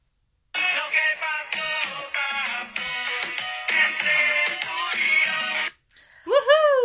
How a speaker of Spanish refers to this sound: Oye, de la mano con este reggaetón